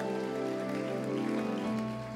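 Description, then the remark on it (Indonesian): Steady, dense applause fills the whole two seconds, a loud continuous patter of many hands, with sustained musical tones holding underneath it. “Tepuk tangan yang meriah untuk kemuliaan nama Amin.”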